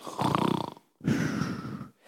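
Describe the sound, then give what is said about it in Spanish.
A person imitates a hypnotized person snoring, with two drawn-out, rattling snore sounds separated by a short pause, fairly loud, with no talking. “que hipnotizan a la gente y la gente, ahí se queda, no se cae, está paradita, pero está ahí Y empieza hasta como a roncar.”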